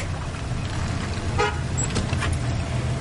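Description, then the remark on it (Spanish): Willy's 4x4 engine rumbles low and steady as it pulls up and stops in front of Mac's garage, with a brief tonal toot, like a short horn note, sounding once partway through. No one speaks. “El 4x4 de Willy para ante el garaje de Mac.”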